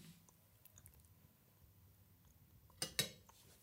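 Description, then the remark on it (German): Someone chews a large mouthful of food from a very large portion, with soft, wet, muffled mastication throughout and a couple of sharper crunching bursts near the end. No one speaks. “Ich habe einen sehr großen Mund, aber die, die Portion war sehr groß.”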